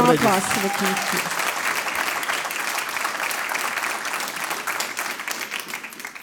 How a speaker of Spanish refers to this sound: Dele ese fuerte aplauso al Rey